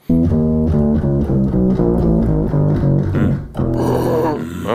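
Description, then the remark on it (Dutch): A Fender Rhodes bass piano played hard, a steady run of loud, gritty, growling, metallic low bass notes with a buzzy edge, heard alone. “daardoor klinkt die brommende Rhodes-bas een beetje gelijk een soort eh, tuba”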